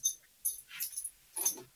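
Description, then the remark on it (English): A dog named Sly, a doge that is the Doge Dog, is brought to the microphone: a few short bursts of rustling and light metallic jingling, like collar tags, with brief quiet gaps between them and no one talking. “My dog is actually a, a doge. Let me go get him so we can.”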